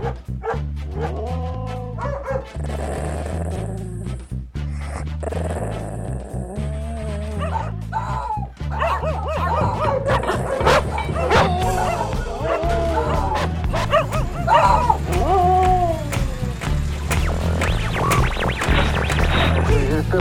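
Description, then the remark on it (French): A dog barks and yips repeatedly over a dense, steady backdrop of music, the sharp bursts growing busier and louder in the second half, with a few whimpering notes early on. “Cette boule de poil est... mon sauveur, mec.”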